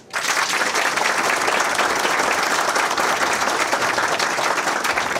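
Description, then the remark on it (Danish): An audience in a tent, those who know the Spot festival in Aarhus, bursts into steady applause, many hands clapping at once in a dense, even roar that holds at full strength for about five seconds without any talking. “Jeg vil gerne høre en klapsalve fra alle dem, som kender til Spotfestivalen i Aarhus.”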